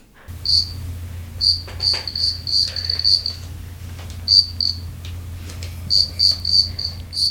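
A cricket inside a radiator chirps in short, bright bursts on a Saturday night, repeating in irregular clusters with brief pauses, over a steady low hum. No one speaks.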